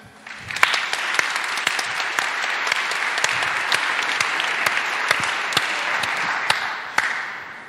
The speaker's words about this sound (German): Ähm, ein Applaus für